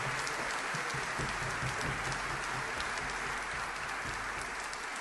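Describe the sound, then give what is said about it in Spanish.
A concert audience at the first concert of a festival at the Usina del Arte applauds Osvaldo and his musicians, broadcast live on La 2x4, a dense, even wash of many hands clapping at once that holds the same loudness for the whole stretch, with no voices rising above it. “Y este aplauso se multiplica para Osvaldo y para sus músicos a través de la 2x4 que está transmitiendo en vivo.”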